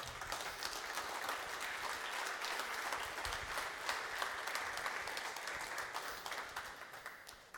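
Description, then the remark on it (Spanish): Steady audience applause welcoming someone up to the front, with many hands clapping in a dense, continuous patter, holding at an even loudness for several seconds without any voices on top. “Y quiero que recibamos con un aplauso”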